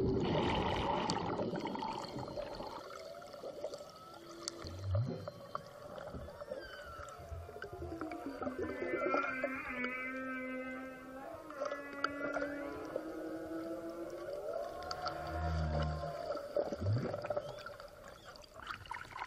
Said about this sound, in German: Nach meiner ersten sehr erholsamen Nacht und einem kurzen Frühstück geht es sofort zum Whale-Watching. Ich will schließlich unbedingt die Humpbacks sehen, nachdem es in Port Stevens nicht geklappt hat. Und da zeigt sich schon der erste.